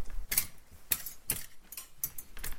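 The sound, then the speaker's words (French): Clothes hangers clink and rattle in a wardrobe, a series of about six bright metallic knocks arriving at irregular intervals, with no voices present. “Le bruit des cintres.”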